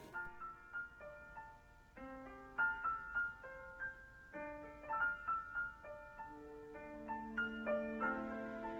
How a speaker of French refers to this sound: on se retrouve tout de suite après l'écoute de la plus grande rappeuse française. Elle a percé dans les années 2000 et elle reste la référence du rap féminin.